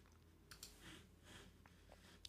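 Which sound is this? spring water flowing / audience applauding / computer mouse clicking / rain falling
computer mouse clicking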